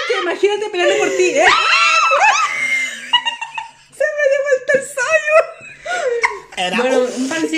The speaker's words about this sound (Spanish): Ay, por Dios, por estar gritando por estos hombres.